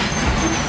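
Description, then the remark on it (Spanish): A heavy construction machine on the Tren Maya section 5 south rumbles loudly overhead, heard from inside a cenote beneath it in Playa del Carmen, Quintana Roo: a steady deep engine drone with a broad, noisy roar, muffled. “esa es la máquina que está pasando por encima”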